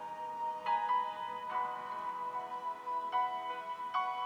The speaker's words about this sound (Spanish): Tu alarma suena a las 7 a.m.